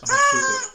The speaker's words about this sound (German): Nein, nein, das ist eine Tröte.